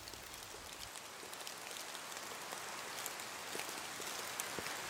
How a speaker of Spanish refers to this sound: Todos adentro, ya llega la lluvia, dijo mi abuelo.